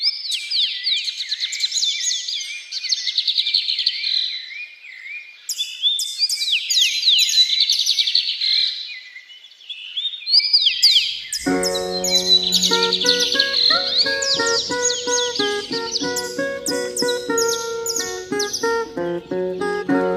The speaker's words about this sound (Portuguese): As pessoas pelo mundo estão ouvindo muito mais os cantos dos pássaros, pois tanta gente sem sair de casa, o mundo está mais silencioso, e muitos pássaros que deixam de cantar quando há barulho voltaram a cantar.